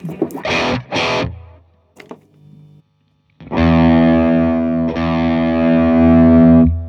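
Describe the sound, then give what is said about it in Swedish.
Heavily distorted electric guitar played through a pedal with the bass knob and the mid knob at zero: two quick strummed chords with a short pause, then a sustained, buzzing chord ringing out loudly with thin low end, played alone. “Här är bas på noll.”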